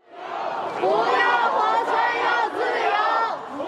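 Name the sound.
protest crowd chanting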